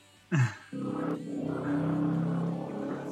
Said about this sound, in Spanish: Con ese sonido del motor que acaba de sonar al aire imagínese el motor de la lluvia.